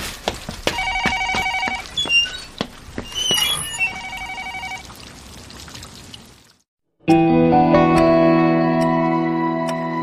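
A restaurant's order telephone for deliveries rings in two trilling bursts over faint background clatter and trickling, then falls silent before a sustained music passage swells in.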